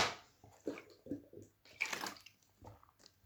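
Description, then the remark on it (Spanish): Wet gulping as someone drinks water from a bottle, a quick series of swallows and sloshing splashes over a few seconds, with no talking. “Bueno, en este momento no los acompaño con un té porque no tengo té en este momento, lo que tengo es una botella de agua, un glu glu para celebrarlo.”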